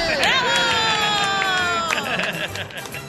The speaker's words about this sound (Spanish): Pero la que ganó fueron mis aguacates. Oh. Todo un aplauso a mis aguacates.